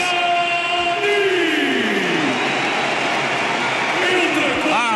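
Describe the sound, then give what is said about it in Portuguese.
Portugal fans in a stadium in Lyon at UEFA Euro 2016 applaud and cheer a substitution in the second half, in a dense, steady roar that stays loud for the whole stretch, with voices and a few rising calls mixed into the wash of noise. “aplausos do torcedor de Portugal, dos adeptos de Portugal.”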